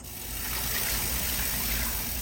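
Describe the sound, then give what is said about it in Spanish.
Water runs steadily from a tap as someone washes their hands, a continuous rush and broad even hiss of splashing with no pauses and no voices. “Lavarse las manos es una de ellas, con agua y jabón preferiblemente, para eliminar todo tipo de microbios.”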